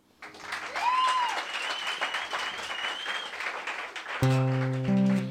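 A crowd applauds steadily for several seconds, a dense wash of clapping with a few whistles or cheers on top, before musical chords come in near the end.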